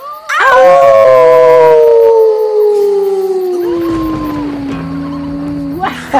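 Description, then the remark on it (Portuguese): Several people howl together like wolves after a count to three, imitating the sound in one long, loud howl that slides slowly downward in pitch for about five seconds before trailing off. “Eu vou contar até três e aí a gente uiva.”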